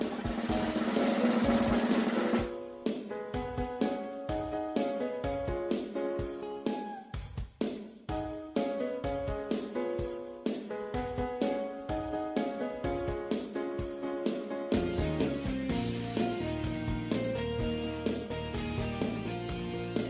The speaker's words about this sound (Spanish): Y vamos a escuchar otra cancioncita, por supuesto.